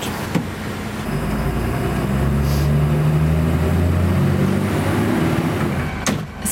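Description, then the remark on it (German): A red-and-grey striped municipal garbage truck of the city of Chur, out collecting Christmas trees, drones loudly with its diesel engine, its pitch climbing steadily as it pulls away from the depot and gathers speed, with a couple of sharp clunks at the start and end. “Ich stehe jetzt hier gerade neben einem rot-grau gestreiften Kehrichtwagen von der Stadt Chur im Werkhof”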